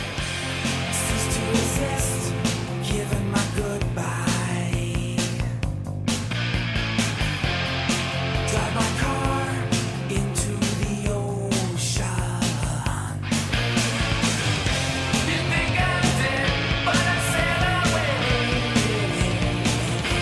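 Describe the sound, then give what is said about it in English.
A loud, dense alternative rock song plays continuously, with driving distorted guitars, steady drums and a singer's voice woven through the mix at a consistently full volume. “You, you are listening to that song, and you go, wait a minute, he's singing about you know a family driving a car off the into the ocean and drowning themselves.”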